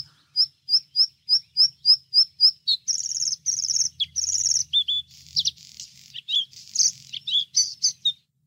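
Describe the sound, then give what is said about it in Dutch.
Bluethroat song: a run of about ten evenly spaced, ringing notes, then a faster, varied stretch of buzzy trills and sharp chirps. Clear, with no voices. “Ik ga, zal ik het geluid nog even een keertje laten horen?”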